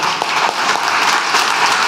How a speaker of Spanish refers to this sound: Y quiero un aplauso para el joven más joven de esta plática de hoy.